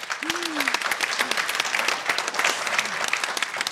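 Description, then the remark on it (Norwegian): Steady applause from a group, dense rapid clapping sustained at even loudness throughout, with a brief voiced exclamation or laugh rising above it near the start. “Det fortjener en ekstra applaus.”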